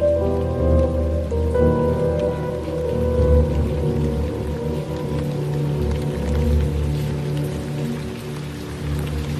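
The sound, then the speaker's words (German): Steady, heavy rain on a stormy autumn afternoon patters continuously on a surface, fairly loud, with a low rumbling undertone beneath it. Nobody speaks. “Es war ein stürmischer Herbstnachmittag in Derry 1957.”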